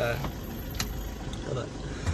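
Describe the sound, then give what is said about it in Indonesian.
A steady, low engine rumble fills a car cabin while driving home from work, a constant droning hum with light road noise and a few faint clicks and rustles. “selama gue uh, balik dari kerjaan gue pakai mobil jika tidak gak mungkin gue bikin podcast sambil naik motor karena nanti akan ada suara angin gebuk-gebuk”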